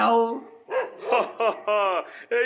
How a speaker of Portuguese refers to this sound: O único problema são esses cachorros que não param de latir. Estão me deixando em pânico, ansiosa. Quero que fiquem longe de mim,